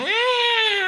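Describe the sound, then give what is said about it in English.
A man's voice imitates a whiny cat meow, one sustained nasal wail lasting about a second, loud, with a slight rising start and no other sounds. “when he turns into a cat, you've got Jemaine Clement's face on a cat going”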